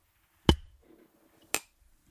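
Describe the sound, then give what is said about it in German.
Glasses clink together in a toast, three sharp knocks spaced unevenly, the first loudest with a brief ring, followed by quiet background rustling and no talking. “so, hier, ich proste äh, mal. Prost, mein Lieber.”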